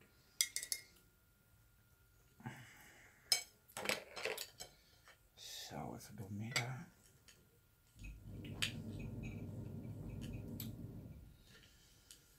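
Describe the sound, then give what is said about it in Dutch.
A knife saws through a peanut butter sandwich, cutting it in half through the middle, giving a steady, rough scraping rasp of a few seconds. Before it come scattered clinks and taps of cutlery against a plate. No one speaks. “Ik ga hem nu door de helft snijden.”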